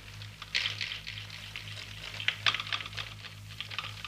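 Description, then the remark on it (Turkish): Lake ice cracking outdoors in freezing cold, as lake water fills the cracks and quickly freezes: irregular dry snaps and crackles come in scattered clusters, with a couple of sharper bursts, over a steady low hum and no voices. “Buz çatlıyor, çatlayan yerlere gölün suyu doluyor ve hemencecik donuyor.”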